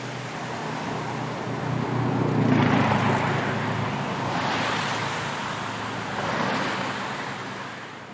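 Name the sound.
road traffic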